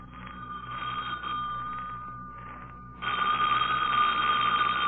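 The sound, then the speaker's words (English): A telephone bell rings for Lamont Cranston with a steady metallic trill, first moderately and then louder and fuller after a brief dip, with no voices. “Don't answer that, Lamont. I know it'll be someone who'll give an excuse for not taking me to the lecture.”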